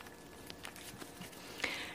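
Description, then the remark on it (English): Soft card handling: a few light taps and flicks scattered across the moment, then a brief papery swish as the cards are shuffled, all quiet and intimate with no talking. “and hopefully the sounds of me turning them and shuffling will make us sleepy.”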